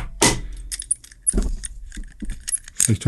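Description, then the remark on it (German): Handling of a small lockable Focusera focus lock box: metallic clinks and rattles, a sharp clatter near the start and another around the middle, then scattered jangling and tapping with no talking. “Also ja, diese Focusera Box, die, die benutze ich immer noch regelmäßig. So, hier. Äh, ihr hört sie jetzt hier, liebe Hörer.”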